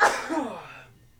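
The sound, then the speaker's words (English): A single forceful sneeze: a sudden sharp burst of breathy noise that tails off within a second, with no talking around it. “Bless you. Where the fuck did that come from?”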